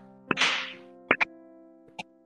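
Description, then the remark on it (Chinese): A few sharp knocks and hand claps ring out alone, irregularly spaced, with two struck in quick succession in the middle, made by a speaker as a listening demonstration during a talk on Zen koans. The first is followed by a brief swishing noise. “因为我问这句话的时候，我敲的声音，我拍掌的声音已经消失了。”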